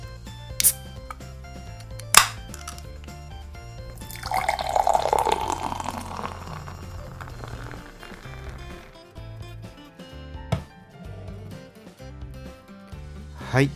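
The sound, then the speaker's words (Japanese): Komatsu Kabuki Beer Weizen from Ishikawa Prefecture glugs and splashes as it's poured from a can into a glass, turning a clear gold, a rising fizzy rush in the middle followed by foamy crackling, with a few sharp clinks and taps around it. “継いでみました色はですね透明感のある金色をしています泡持ちがねいいですね”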